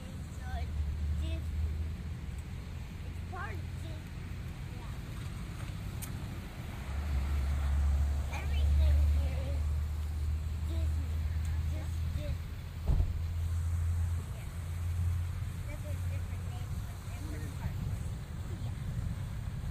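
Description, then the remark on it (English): A bus drives past with a deep, steady engine rumble that swells through the middle before easing off, over a backdrop of street noise and indistinct voices. “How about we just wait for a bus here?”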